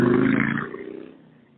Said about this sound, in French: Là, on vient d'entendre qu'on était en Floride, on a entendu une moto passer à côté de toi,